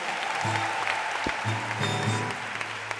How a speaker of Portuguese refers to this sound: Oh, salva de palmas para as perguntas.